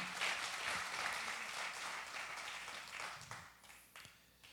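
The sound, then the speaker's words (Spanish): An audience gives strong applause to the king, applauding steadily in a dense wash of many hands clapping at once that holds strong for several seconds, then thins out with a few scattered claps as it fades. “Dale fuerte ese aplauso. Give him al rey. strong applause to the king.”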